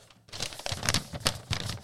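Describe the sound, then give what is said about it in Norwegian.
Crisp crinkling and rustling of a thick, light-blue sheet of paper being handled, with several sharp bursts of crackle over about two seconds and no voices. “Tjukt og fint uh, lyseblått ark.”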